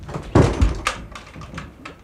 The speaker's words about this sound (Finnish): Hän lukitsi oven.